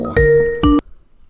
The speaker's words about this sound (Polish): Uuu, słuchajcie, telefon pierwszy. Incoming call.